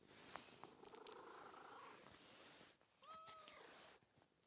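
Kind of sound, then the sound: animal, cat purring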